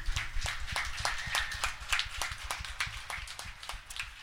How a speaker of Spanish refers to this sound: Dale un fuerte aplauso al Señor, mi hermano.